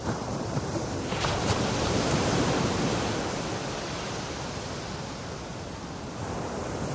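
A steady, full wash of sea surf rolls on shore, broad and hissing with gentle swells in loudness, fairly loud with no voices over it.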